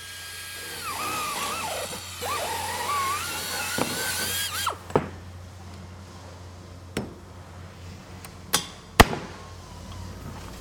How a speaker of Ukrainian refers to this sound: нашій місцевості єдиний вихід добути воду це бурити свердловину. От зараз, от прям саме зараз, ми це робимо.